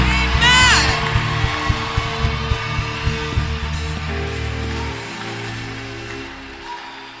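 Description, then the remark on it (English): A church audience bursts into loud clapping and cheering for the Lord, with scattered whoops and shouts over a dense, sustained wash of applause that stays strong throughout before easing slightly near the end. “Give the mighty clap to the Lord.”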